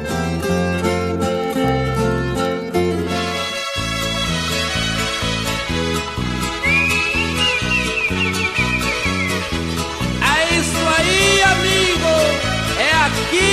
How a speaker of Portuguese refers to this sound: Deixo essa canção gravada em 1988